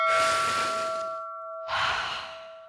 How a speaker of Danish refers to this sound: Men vi kan jo godt lige tage en vejrtrækning sammen til sidst, og måske opfordre alle i MeToo-debatten til sammen og trække vejret dybt?